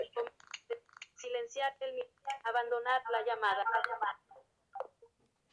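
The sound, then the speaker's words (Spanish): A voice comes through a WhatsApp video call from a cellphone, sounding thin and processed, speaking in short bursts for a few seconds with brief pauses between phrases. “Bueno, acá está la llamada.”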